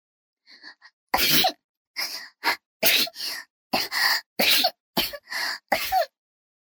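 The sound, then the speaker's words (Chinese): A quick run of loud, sharp sneezes, about eight or nine in a row at a steady rhythm, from someone chilled by a cold wind, with a few faint breathy catches just before the first one and no talking. “接连打了几个喷嚏”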